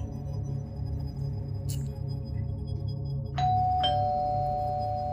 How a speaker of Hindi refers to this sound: शाहिद जैसे ही नहाने के लिए बाथरूम में घुसा अचानक से डोर बेल के बजने की आवाज आई